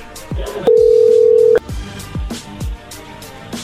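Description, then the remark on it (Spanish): A telephone number being redialed after a call was cut off: a steady dial tone lasts about a second, followed by a series of short, falling electronic blips and soft clicks, with no voices. “A ver, márquenle de nuevo.”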